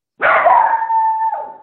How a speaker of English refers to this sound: Hey, did you did you hear that noise? I I think I heard something. Is that oh yep, that's the dog woof.